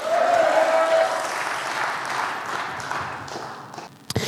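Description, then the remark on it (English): An audience claps hands to the Lord in a dense, sustained burst of applause that gradually thins and fades, with a steady held tone in the first second and a sharp knock near the end. “Come on, clap your hands to the Lord and say, Yes.”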